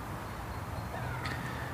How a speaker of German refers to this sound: Es ist ein goldener Herbsttag und äh, man hört die Ausflügler, ein paar Vögel zwitschern noch.